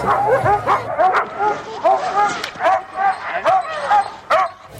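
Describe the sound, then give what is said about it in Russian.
Husky dogs at a ski race, where participants could ski with them, bark and yip excitedly in rapid, overlapping bursts, several dogs creating a busy, continuous chorus with brief pauses between volleys. “Также каждый участник имел возможность прокатиться на лыжах вместе с собаками породы хаски.”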